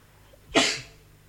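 sneeze

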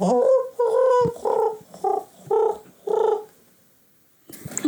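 pigeons cooing

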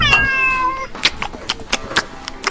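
cat meowing

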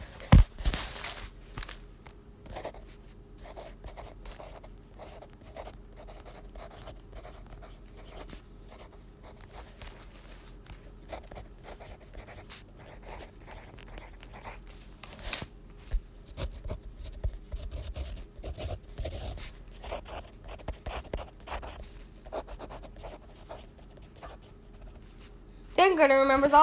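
pencil writing on paper

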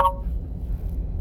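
phone notification ding

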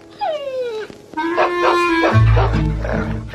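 dogs barking

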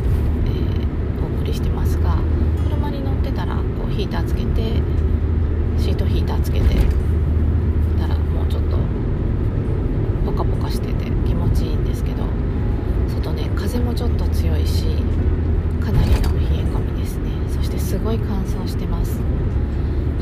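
inside a car

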